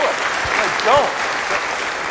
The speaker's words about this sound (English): At this point, everyone usually applauds loudly.